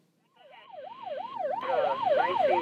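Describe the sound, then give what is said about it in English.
An EMS radio incoming-call alert: a rapid, siren-like warbling tone that sweeps up and down in a steady rhythm, growing louder and harsher over a couple of seconds, with no voices. “Fresh cup of coffee in your hand, walking past that EMS radio again, and you get a call.”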